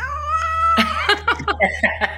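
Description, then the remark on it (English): A cat lets out a long, loud, drawn-out meow that breaks into several wavering yowls, insistent, over a steady low hum, as it wakes its owner in the morning. “know, every morning it wakes me up with the loudest meow.”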